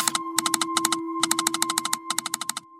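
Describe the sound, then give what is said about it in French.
A telegraph key clicks out rapid, sharp pulses in short bursts separated by brief pauses, transmitting coded messages as electrical impulses, over a steady low hum and a faint high tone. No voices. “Le télégraphe permet de transmettre des messages codés grâce à des impulsions électriques.”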